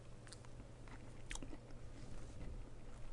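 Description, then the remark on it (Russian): Crunchy biting followed by steady chewing, with sharp crisp bursts over a low background hum; no one speaks. “Таим. Вкусно.”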